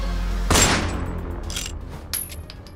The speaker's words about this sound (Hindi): विक्रांत सिन्हा ने अपनी गन निकाली और निशाना लगाकर राज के पैरों पर शूट किया